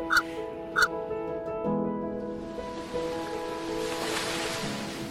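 Foaming surf on a rocky coast washes in with a broad hiss that swells toward the end, under a steady low drone, with two short bird calls near the start.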